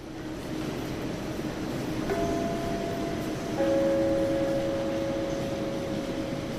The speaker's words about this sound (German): An solchen Tagen wie heute sind beinahe 450.000 Menschen an diesem zweitgrößten Fernbahnhof Deutschlands unterwegs